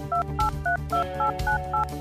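A quick run of about eight touch-tone beeps as a phone number is dialed, each short dual-tone blip evenly spaced, loud over a low background hum.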